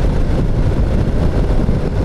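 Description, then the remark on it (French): A motorcycle engine drones steadily while riding in sport mode, a loud, continuous low rumble mixed with wind roar, with no pauses or talking. “parmi tous ces modes moteurs, on a le mode sport avec lequel je roule actuellement”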